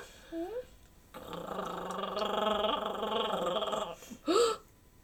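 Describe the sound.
A stomach growls in a loud, drawn-out rumble lasting about three seconds, framed by short voiced sounds just before and after it.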